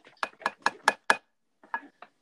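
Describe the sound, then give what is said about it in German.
A tin can holding beads is knocked on a table: five quick, evenly spaced taps with a slight metallic ring, a short pause, then two softer knocks. Clear, with no talking. “Dann klopfen wir mit dieser Dose auf den Tisch.”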